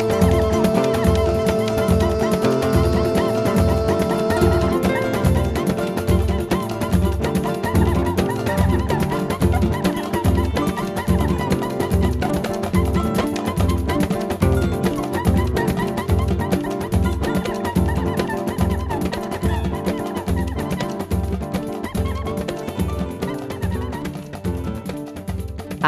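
A full samba band plays at a steady, driving pulse, with dense percussion throughout and a squeaky, honking cuíca cutting through the mix. There is no singing.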